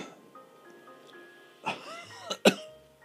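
A person chokes and coughs in a short series of three sharp, raspy bursts, the last one the loudest, against a quiet background.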